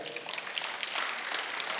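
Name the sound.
audience clapping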